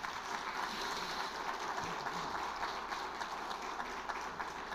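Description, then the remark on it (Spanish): A crowd applauds steadily for young people graduating from university this week, a dense, continuous wash of many hands clapping at an even loudness with no talking over it. “yo aprovecho para felicitar jóvenes, eh, tanto del área masculino como el área femenino, que en esta semana van a estar obteniendo sus títulos universitarios, se van a estar graduando y yo creo que merecen un aplauso por eso.”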